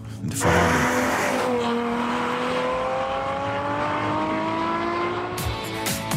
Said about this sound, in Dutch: Terwijl we hier in de studio allemaal stoere verhalen delen over het driften, gaan we gewoon lekker even rijden. De rijimpressie. Ja, hij start de startblokken.